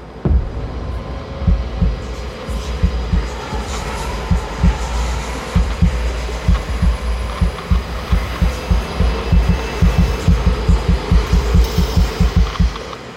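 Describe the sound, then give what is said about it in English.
A loud, thumping heartbeat pounds steadily in lub-dub pairs, growing quicker and more insistent as it goes, over a low, tense rumbling backdrop with no voices. “I think just about everyone, at least once, has experienced that kind of palm sweating, heart thumping, mind racing anxiety,”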